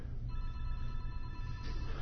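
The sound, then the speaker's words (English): A phone rings with a steady electronic tone that starts just after the beginning and holds to the end, fairly faint over a low background rumble, with no talking. “Another phone ringing.”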